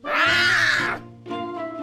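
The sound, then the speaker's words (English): A loud big cat roar with a rough, rumbling harmonic growl lasting about a second, followed by a shorter, slightly quieter second roar. “The cats we keep as pets today are related to giant wild cats like tigers, lions, and jaguars.”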